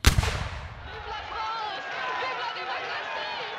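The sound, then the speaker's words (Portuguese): A single heavy French 75 cannon blast booms, its low rumble rolling and fading over about a second, leaving faint background murmuring and thin whistling sounds. “Beber uma dose dessa bebida é como levar um tiro de French 75.”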